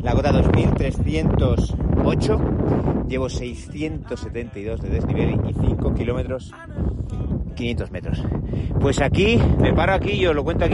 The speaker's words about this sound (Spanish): Estoy en la cota. Lo siento por el viento, pero ahora.